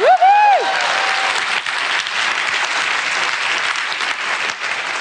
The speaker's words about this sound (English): Everyone give him a massive round of applause.